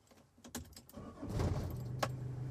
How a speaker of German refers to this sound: Oh, das ist der Sound der Landstraße und der Freiheit.